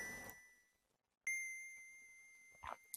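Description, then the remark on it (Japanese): A single bright chime note, the final "do" of a new theme song, rings out after a brief quiet, its clear tone lingering and slowly fading, with a couple of soft knocks near the end. “皆さんこの最後のどの音聞こえますかちょっとね、ちょっとのこの余韻の後のど。”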